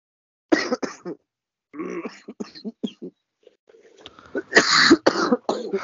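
Several light, dry coughs come in short bursts with pauses between, close to the microphone, ending in a louder cluster of coughs.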